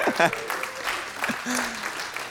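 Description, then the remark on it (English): An audience applauds with scattered cheers and whoops for the news that someone is getting married, a steady crackle of clapping lasting a couple of seconds with a few higher voices rising above it. “That's worth a, a cheer.”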